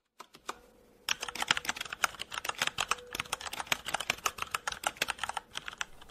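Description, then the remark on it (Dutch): Rapid, rattling computer keyboard typing, fairly loud: a few isolated keystrokes, then a dense, continuous clatter of clicks lasting several seconds with no voices. “wat gaat er door je heen als je dit geluid van een uh, ratelend toetsenbord zo eh, hoort?”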